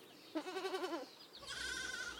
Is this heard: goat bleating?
yes